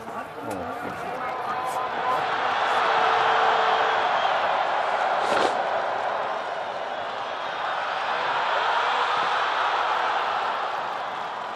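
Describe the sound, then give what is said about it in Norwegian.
A large outdoor crowd at the 1982 Holmenkollen ski jumping event roars and cheers continuously, a dense wash of voices swelling to a peak early on, with a brief sharp burst midway and scattered whoops over the din. “Holmenkollen, vårt nasjonale ikon, og brølet som vi liker å høre, her fra rennet i 1982.”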